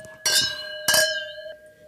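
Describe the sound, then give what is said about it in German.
Two bright clinks of wine glasses touching in a toast, one after another about half a second apart, each leaving a clear ringing tone that slowly fades, with no talking. “Also, sehr zum Wohl”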